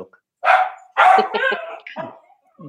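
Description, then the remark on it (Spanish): A small dog lets out several sharp, loud barks at the doorbell in a quick, uneven burst, with brief pauses between yaps and no one speaking. “yo no voy a estar escuchando ladrillos de perro”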